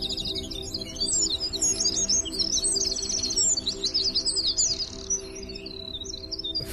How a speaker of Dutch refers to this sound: Die gingen om me heen vliegen, want ze waren op zoek naar het winterkoninkje wat aan het zingen was.